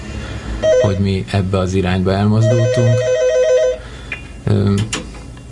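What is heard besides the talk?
telephone ringing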